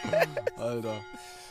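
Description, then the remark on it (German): Church bells ring steadily in the background, their sustained tones humming beneath a person's voice that dominates the foreground. “Ja, so langsam ist es aber auch schon wieder ungenießbar hier, die Glocke.”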